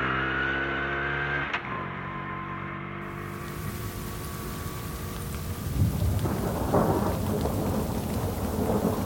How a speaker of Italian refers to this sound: Alla prima curva fuori dal paese i lampi poi i tuoni e tanta pioggia.